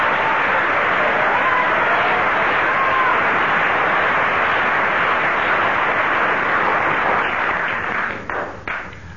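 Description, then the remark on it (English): Sustained audience applause used to score a pair's performance, one mark per second of applause: a dense, steady wash of many hands clapping at full loudness, thinning into a few scattered claps near the end. “That's one mark per second of applause.”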